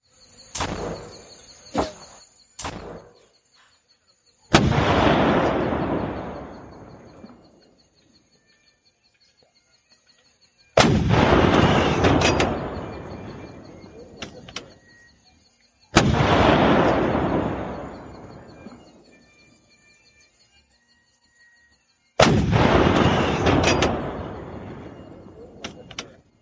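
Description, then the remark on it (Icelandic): Heavy artillery booms roll out four times as cannons fire explosive shells into a forest, each blast decaying into a long rumbling echo, with sharp rifle cracks scattered in between against a faint background of insects. “fallbissuna dregna fram og og skutu sprengjúkúlum inn í skógin þar til skotriðin sljákkaði.”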